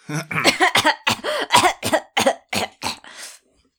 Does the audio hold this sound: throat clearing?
yes